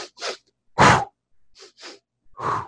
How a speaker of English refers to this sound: and then and I do like a certain breathing ritual. I go.